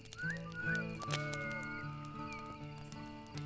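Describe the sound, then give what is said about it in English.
A person whistles like a bird: a few quick rising chirps, then longer sustained tweets, over a steady plucked instrumental accompaniment with a regular rhythm. No one speaks. “And the dog went woof woof and the bird went.”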